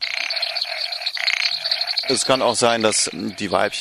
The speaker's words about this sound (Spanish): Un ejemplo clásico es la rana brasileña Leptodactylus vastus o rana de motor diésel. Este anfibio mide unos 20 centímetros.